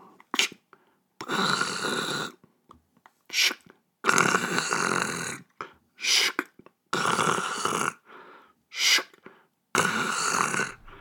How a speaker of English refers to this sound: I forgot how long rotary phones take.